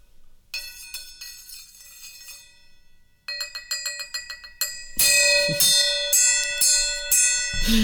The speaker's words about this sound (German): Schlagen Sie mal den Gong, Gong, Gong, Gong. Den Gong, Gong, Gong.